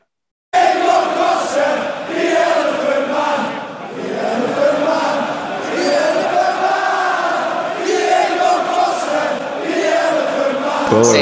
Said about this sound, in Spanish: Sí, entonces por eso la afición de Liverpool empezó a cantar este cántico a Diego Costa.